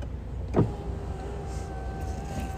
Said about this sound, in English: I smell exhaust. Who the fuck has exhausted me out here? Roll down my window.